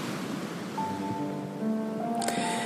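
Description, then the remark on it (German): Soft ocean waves wash steadily onto a sandy beach in sunshine in a continuous, gentle hiss, with faint tonal hums drifting beneath and a brief brighter splash near the end. No one speaks. “Und diese Wellen sind so schön beruhigend, weil sie sanft und gleichmäßig kommen und gehen.”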